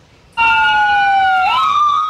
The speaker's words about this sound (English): The endless echo of sirens, a grim alarm for the state of our nation's hospitals.